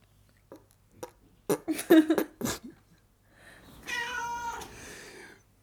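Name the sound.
person imitating cat meows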